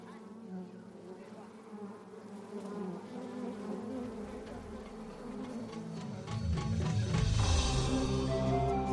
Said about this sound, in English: But the Efe clearly heard these bees from quite a distance off and were able to track down which tree the nest was in by sound, not by sight.